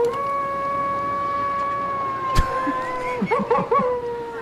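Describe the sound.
In a film scene, a man lets out a long, steady wolf-like howl that holds one pitch, then breaks into wavering, yelping warbles at the end; a sharp click cuts in midway.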